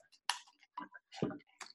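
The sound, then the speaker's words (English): A plastic lid is twisted and pulled off a bottle with a pencil pushed through it, giving a short run of quiet clicks and crackles over under two seconds, with no talking. “So you just make sure that the pencil is big enough to go in the bottle because when you go one, two, three, the pencil goes all the way through the bottle like that and then take the lid off”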